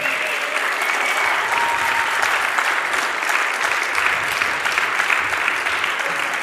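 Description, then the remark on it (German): An audience claps steadily for several seconds to bring the speaker's two children onto the stage. The applause is a dense, even wash of many hands with no pauses, fairly loud throughout and without voices standing out. “Gebt mal ein bisschen Applaus, dann holen wir die zweimal auf die Bühne.”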